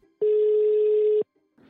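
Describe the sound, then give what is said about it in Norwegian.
A telephone ringing tone sounds once, a steady, loud electronic beep held for about a second before cutting off into near silence, followed by faint rustling at the end. “Men hva skjer hvis avhørt ringer?”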